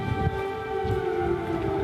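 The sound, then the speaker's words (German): An air raid siren wails in Kyiv, Ukraine, as the alarm sounds across the whole country, with a steady, sustained tone, its harmonics ringing out continuously over low rumbling background noise from outdoors. No one speaks. “Als Biden und Zelensky zum Mahnmal für die gefallenen Soldaten gehen, ertönt in Kiew und der gesamten Ukraine Sirenenalarm”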